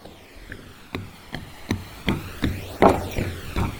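Footsteps in shoes thud across the wooden planks of Puente Chirimi, a plank bridge held up by cables, in a steady walking rhythm, about ten hollow knocks with a faint creak, over the soft continuous rush of the Río Negro.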